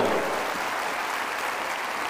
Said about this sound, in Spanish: Regálale un fuerte, fuerte aplauso a esta mujer. Fuerte el aplauso.